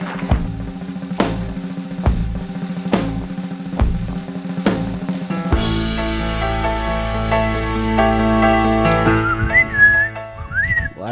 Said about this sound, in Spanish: sí pude silbar, miren, lo hemos logrado ya después de tantos intentos, ya la prótesis no se me ha despegado todavía, eso, está bueno, eso está bueno.